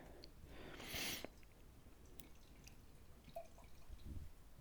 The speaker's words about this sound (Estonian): see on aeglase elamise hääl see, kuidas äh, hommikune kohvi tilgub läbi filtri tilkhaaval tassi.